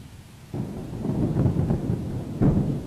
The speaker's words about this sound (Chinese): 凄厉厉的雨声越发大了，它像是开了闸门似的倾泻了下来。